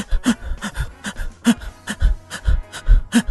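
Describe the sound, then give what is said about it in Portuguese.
A person imitates rapid, shallow panting, quick breathy puffs repeating in a steady rhythm of about three per second with no words spoken, showing how they breathed fast while ill because breathing deeper made them want to vomit. “E aí, como eu precisava de, de ar, eu precisava ficar respirando rapidinho assim.”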